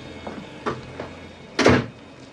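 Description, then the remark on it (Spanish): A few soft, evenly spaced footsteps approach, followed by a louder thud of a door shutting, with no voices present, in a scene from a horror film. “Solamente unos pasos y una Vamos, vamos. y una de puerta.”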